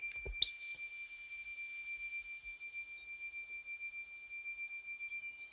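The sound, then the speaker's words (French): A continuous, piercing high-pitched ringing, like a tinnitus simulation, sets in after a brief low thump and holds steady for several seconds with a faint wavering shimmer, alone and fairly loud. “Mon quotidien, c'est ce son euh, strident, continu, très aigu.”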